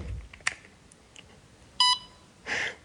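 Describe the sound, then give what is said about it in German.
After a soft click, a short, bright electronic beep sounds once as a square electronic receiver, about the size of a cigarette pack, is switched on with the button on its top, followed by a brief burst of hiss. No one speaks. “Sie hören also einen kurzen Einschaltton.”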